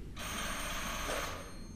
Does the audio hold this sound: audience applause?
no